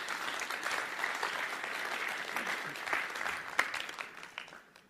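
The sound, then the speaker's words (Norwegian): Sustained audience applause for people who helped, a dense wash of many hands clapping at steady loudness, with a few sharper claps standing out before it begins to fade toward the end. “Ja, gi dem en applaus.”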